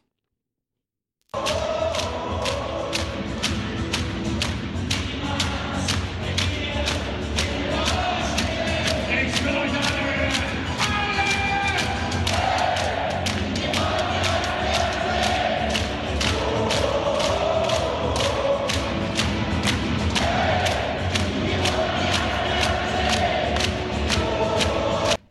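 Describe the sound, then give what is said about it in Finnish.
A massive crowd in a new arena roars and chants continuously during the team entrance, with a fan section of 15,000 standing spectators and steady rhythmic thumps like drums or stomping driving a fast beat throughout. Loud, dense, and sustained with no pauses. “mä otin äänimateriaalia sieltä, niin tota, kuunnellaan vähän, että minkälainen oli sisääntulo”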